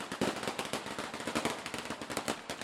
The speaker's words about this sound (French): Des Fox défilent régulièrement. Ce sont de petits diables qui crachent du feu et font péter des pétards partout dans les rues.